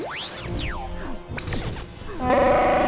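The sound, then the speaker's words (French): A rising, whooshing swish is followed by a loud crashing impact that rings out with harsh, buzzing metallic tones as a weapon falls into the scenery and cuts through part of it. No one speaks. “son arme tombe dans le décor et découpe une partie d'IG 96”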